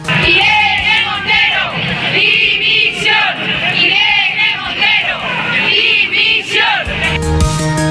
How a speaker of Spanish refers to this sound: Y en la otra manifestación convocada en la capital, la del movimiento feminista de Madrid, contrario a la ley trans porque dice borra a las mujeres y a la prostitución, se escucharon gritos pidiendo la dimisión de la ministra.